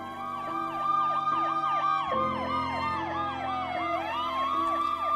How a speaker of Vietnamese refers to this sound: Xe cấp cứu và xe cảnh sát đến.